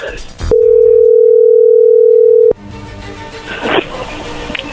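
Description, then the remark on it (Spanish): A steady, loud telephone call tone holds a single mid pitch for about two seconds as a phone call is placed, then cuts off abruptly into background noise and voices. “Pues ya veremos, ahí le va a llamar el lobo, ¿ok?”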